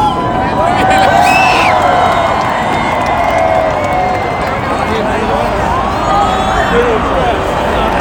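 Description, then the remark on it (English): A large New Year's Eve crowd cheers and shouts continuously right after a grand-finale fireworks display, with many overlapping voices whooping loudly and steadily throughout; no distinct bangs stand out. “It's like they're cheering for that when I say that.”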